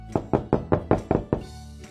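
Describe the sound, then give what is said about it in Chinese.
A rapid run of about seven firm knocks on the door of the little turtle's house, made by two story characters knocking together, evenly spaced and fairly loud, each a sharp thud with a short ring, then a brief quiet tail with no voices. “小趣和甜甜一起敲起了门，”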